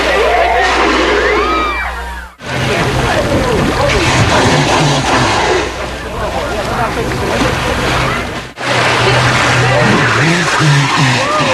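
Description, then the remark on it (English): Loud noises from a male humpback whale through its blowhole: wavering moans and rising, falling groans over a steady low drone and broad rushing hiss, in three back-to-back stretches separated by brief cuts. “he also makes more loud noises through his blowholes than any of the other whales we ever saw”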